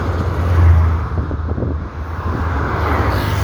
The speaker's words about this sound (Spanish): yo voy a esperar a que no vengan carros para cruzar